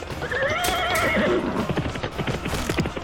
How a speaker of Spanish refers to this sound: ¡Detengan el caballo! ¡El jinete es Wu Han!